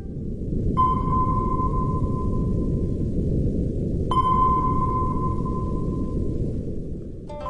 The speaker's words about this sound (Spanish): Uno de los periodistas que visitó el lugar logró captar otro sonido con su cámara, que era un sonido que recordaba al que oímos en las películas cuando hay un submarino, el sonar.